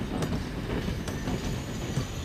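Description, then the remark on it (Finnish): A train rolls steadily along the rails across flat land in a valley with a constant low rumble, broken by a few sharp clicks from the wheels passing over joints. The sound is continuous, with no voices. “Äkkiä Hans Kastrup havaitsi, että juna kulki tasaisella maalla.”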